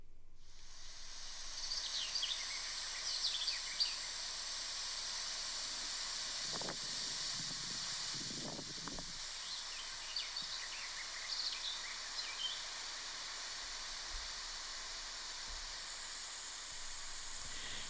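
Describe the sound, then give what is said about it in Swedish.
Strong wind rushes steadily through trees in a constant, airy roar, swelling in a few deeper gusts midway, with faint bird chirps scattered in the background. “Vindens kraft i träden är stark. Hör!”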